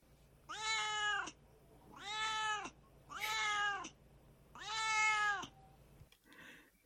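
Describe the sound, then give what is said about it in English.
A domestic cat meows four times in a row, each call long and drawn out with strong harmonics, fairly loud, with short pauses between them and no talking. “where my cat Duarte shares his opinions about the book”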